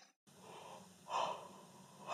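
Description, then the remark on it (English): A breathy yawn-like exhalation from a tired person swells in a couple of airy pulses, with a sharp intake starting again at the end; no talking. “Am I boring you? Is that why you're yawning or like what's I, happening?”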